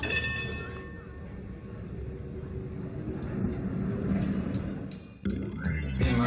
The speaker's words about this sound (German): Am Anfang des Liedes ist auf der Immermannstraße in Düsseldorf das Klingeln einer Straßenbahn zu hören.